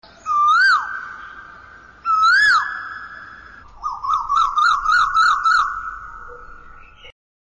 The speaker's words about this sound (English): So, kids, have you ever heard the mellifluous song of a koel? In the months of April and May, the koel sings its lovely song and fills the air with lilting music.